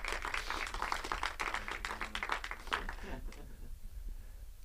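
An audience breaks into applause to thank the technical team that runs the Sunday livestream, a dense patter of many hands clapping for about three seconds before it quickly thins out and fades away.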